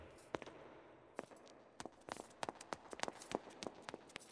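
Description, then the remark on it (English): Heavy footsteps of an armored soldier with a sharp, metallic clank, sparse at first and then quickening into a steady tread that grows louder as the soldier approaches. No one speaks. “The clanking of the soldier's footsteps could be heard approaching.”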